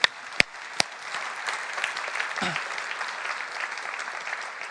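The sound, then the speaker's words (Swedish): An audience bursts into sustained applause to thank Jesus, a dense wash of many hands clapping at a steady, fairly loud level after a few sharp initial claps. “Det är nästan så det är värt att applådera och tacka Jesus.”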